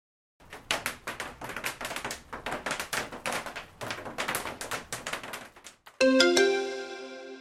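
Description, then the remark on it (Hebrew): Hail falling as a dense, rapid clatter of sharp ticking impacts, steady and irregular for about five seconds, then stopping; a bright chiming jingle follows at the end. “זה בכלל היה ברד.”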